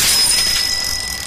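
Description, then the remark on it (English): A bicycle hurled off a building crashes hard onto the ground, a loud burst of metallic clatter with a sustained bright ringing that slowly fades over a second or so. No voices. “This is the sound of a flat screen television hurled off a building now the new bike your kid wants.”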